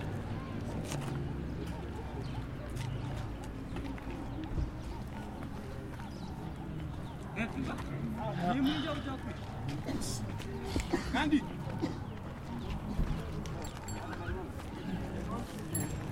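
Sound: donkey hooves clip-clopping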